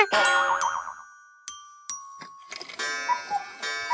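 A wall clock strikes six, each resonant chime ringing out and overlapping the next in a steady, unhurried sequence, clear with no voices.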